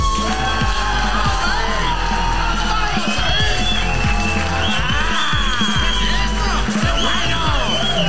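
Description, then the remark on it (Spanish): A loud, unbroken roar of audience applause and cheering for two comedians at a comedy show in Sevilla fills the whole eight seconds, with whoops and yells rising and falling over the dense clapping. “Un aplauso para Fernando Leda y Pablo Larán.”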